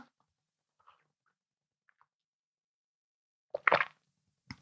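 Mouth noises: a few faint wet clicks, then a loud gulping swallow while sipping coffee during a coffee break, followed by a second short swallow at the end.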